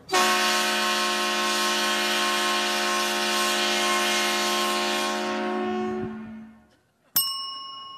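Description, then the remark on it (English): A loud, sustained 130-decibel train horn at a football stadium blasts steadily for about six seconds in a rich harmonic chord, then fades out, followed by a short bright ding-like tone; it sounds each time Purdue's Boilermakers, a Big Ten team from Indiana, score a touchdown. “You'll hear this 130 decibel sound every time this train themed Big Ten team from Indiana scores a touchdown.”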